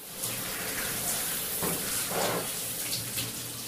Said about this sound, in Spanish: Nada sino el agua se oía en el departamento.